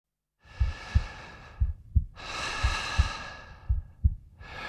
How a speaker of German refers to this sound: Der Mensch atmet. Das Herz schlägt. Kommt beides zum Stillstand, gilt der Mensch als tot.